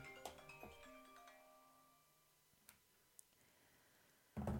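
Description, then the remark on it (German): An alarm clock rings with a short, quiet electronic melody of stepping tones that fades after a couple of seconds, followed by a few sharp clicks and a brief rustling thump. “Ja, Leute, es tut mir leid, da hat der Wecker geklingelt.”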